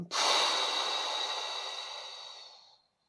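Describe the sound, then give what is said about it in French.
A deep breath in, then an audible breath pushed out through the mouth to relax before meditation: one long airy whoosh lasting a few seconds that starts abruptly and slowly fades, with no talking. “Comment faire Simplement, on inspire profondément et on expire par la bouche.”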